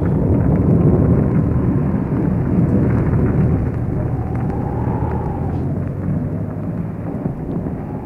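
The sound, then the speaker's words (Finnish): A loud, continuous rumble of thunder rolls over the roar of a stormy, churning sea, with the dense low noise holding steady for the whole stretch and no voices. “Nousi myrsky ja raju ilma. Ukkonen jyrisi ja meri myllersi.”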